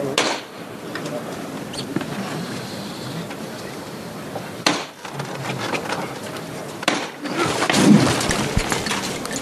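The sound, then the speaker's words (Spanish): Three sharp wooden knocks of the llamador on the paso of the Hermandad del Silencio ring out a few seconds apart, calling for the paso to be lifted again after prayers. Each is a loud, bright hit standing out over a steady crowd murmur and outdoor noise. “Ahora mismo el paso arriado, han terminado los rezos delante de la titular de la Hermandad del Silencio ahora mismo se vuelve a levantar a las tres llamadas.”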